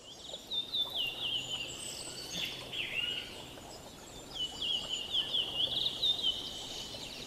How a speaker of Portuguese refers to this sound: Berlioz e Bentivis cantam.